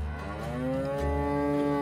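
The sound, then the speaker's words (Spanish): A single long, low moo of a chubby cow from the video game Story of Seasons: Pioneers of Olive Town drones steadily for nearly two seconds, rich, with no talking over it. “Eso sí, conservando las vacas rechonchas y otros elementos que han caracterizado al título.”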